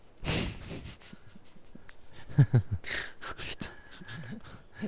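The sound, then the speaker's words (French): A dog snorts and pants in short, irregular bursts of breathy noise, with a couple of sharper snuffles in the middle and a brief human laugh. “C'est le problème d'avoir un chien.”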